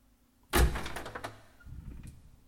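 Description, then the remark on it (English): A studio door opens with a sudden loud thud and a rattling, scraping sweep, then settles into a softer low rumble as it finishes moving. No voices are heard. “The person across the room, half reclining on the couch, their back turned toward me, did not hear the opening of the door.”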